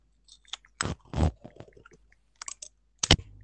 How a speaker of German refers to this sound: Achtung, ich mache jetzt Tesafilm.